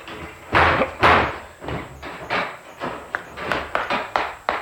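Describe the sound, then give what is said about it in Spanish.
A cabin's wooden door is kicked open: a series of heavy thuds and slams, two big impacts followed by several smaller bangs and rattles, loud with no talking. “La cabaña está solitaria y su oscuridad se hace más tenebrosa en el interior cuando ha saltado la puerta ante los impactos vigorosos de la pierna”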